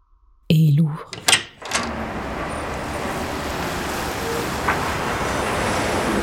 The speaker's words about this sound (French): Il défait les sept verrous